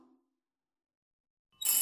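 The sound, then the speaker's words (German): A telephone starts ringing abruptly after a stretch of silence, a bright, loud electronic trill filling the last moments. A brief low murmur trails off at the very start. “schloss die Kühlschranktür sorgfältig und lief zum Telefon. Er nahm den Hörer ab und horchte hinein.”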